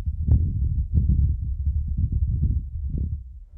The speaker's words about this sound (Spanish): on Mars, Mars, the atmosphere attenuates a lot of those higher frequencies, so you tend to hear the lower frequencies. Está el viento.